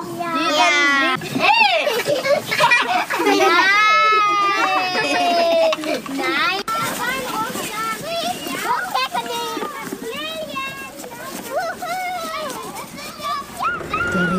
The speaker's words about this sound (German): Regen ist zum Glück vorbei und die Kinder, Sie hören es im Hintergrund, springen ganz vergnügt in den Wald hinein.